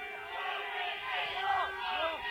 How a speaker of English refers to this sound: Listen to that crowd, devotion.